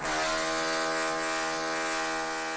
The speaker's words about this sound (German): ja, auf einer richtig lauten Baustelle arbeiten